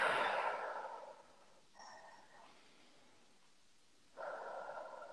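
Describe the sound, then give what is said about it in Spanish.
A deep, airy inhalation through the nose, soft, followed by a shorter breath, a brief pause, then another long breath drawn in, as part of a calm breathing exercise. No talking. “Así que comenzamos a inspirar.”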